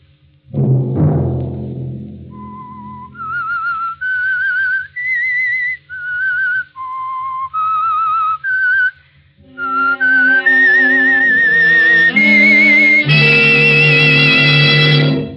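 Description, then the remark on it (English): The whistled theme of the CBS radio show The Whistler: a lone whistler carries a slow, eerie melody of sustained notes with slight vibrato, clear, over a low rumbling drone, then a swelling orchestral passage joins with rich harmonies. “Have you heard the strange tales of the Whistler?”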